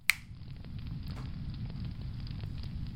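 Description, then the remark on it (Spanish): A bonfire is lit, flaring up with a sharp snap at the start, then settling into a steady low roar with scattered pops and crackles, fairly loud, with no voices. “Vamos a encender la hoguera.”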